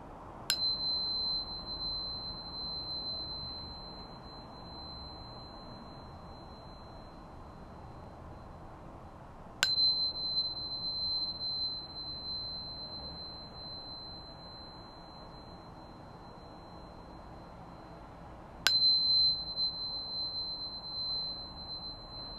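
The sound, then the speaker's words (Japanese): A newly bought crystal tuner, just unpacked, is struck three times, about nine seconds apart, each tap a sharp click followed by a steady, high, pure ringing tone that sustains between strikes. No voices. “クリスタルチューナーを買ってみたって話”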